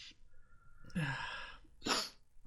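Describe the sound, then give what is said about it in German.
A single sneeze: a drawn-in breath building up, then a sharp, bright burst of air, with nobody speaking. “Gesundheit.”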